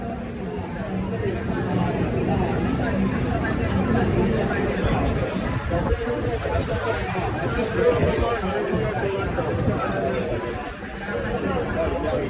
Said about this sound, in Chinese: 但是你大概还是可以听得到人和人之间那个呃摩肩擦掌的声音哦，那个非常的热闹。这几天的淡水呢，都会非常非常多的人，除非下雨，不然人真的是多到爆哦。